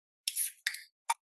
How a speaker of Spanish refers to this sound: déjame destapar mi cerveza.